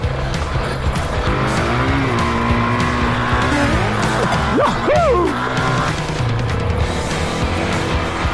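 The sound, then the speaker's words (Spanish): An off-road motorcycle engine roars loud throughout, its pitch surging and dropping as the throttle is worked through mud, with a brief excited shout from a rider partway through. “Madre mía, esta moto se lo come todo.”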